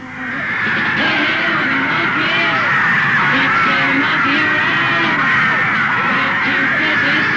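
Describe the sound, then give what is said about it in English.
A mob of fans screams nonstop as Davy Jones faces them in the morning, a dense wall of overlapping high-pitched shrieks and yells that swells in within the first second and stays loud and frenzied throughout. “Davy Jones braves the screaming mob and brings on a fresh wave of hysteria.”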